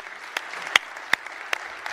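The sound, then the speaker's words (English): Audience applause at a church service for the volunteers serving across the campus: a steady, hissy wash of many hands clapping, with a few sharper individual claps popping out above it at roughly even intervals. No one speaks. “You know, they don't do it for that applause, obviously, but we're, we're, thanking God for the gifts of service that God has given to so many people and blessed you with, blessed our church with.”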